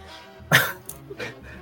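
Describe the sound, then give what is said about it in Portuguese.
A dog gives a sharp, loud bark, followed about half a second later by a softer second bark, against a quiet background. “O cachorro tava latindo aqui”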